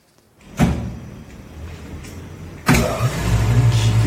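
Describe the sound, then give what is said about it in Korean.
An electric grinding machine grinding soybeans to make handmade tofu for sale switches on with a sudden thump and a low, steady motor hum, then grows louder and harsher as it churns, with a rough, whirring drone and no voices. “손두부를 직접 어. 만들어서 어, 파시는 어, 분께서 두부 만드는 소리를 직접 녹음해서 보내주셨는데요.”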